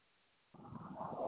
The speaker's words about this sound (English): There goes the plane. That's one of the Blue Angels right overhead. Right overhead to the west of me. Yeah. Directly west. Listen to the sound of the plane.